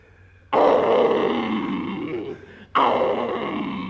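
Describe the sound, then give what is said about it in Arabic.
Two loud lion roars with a growling, rumbling texture: a long one that slowly fades, then a second sharp roar bursting in right after a brief dip, with no talking. “يا اسد يا اسد”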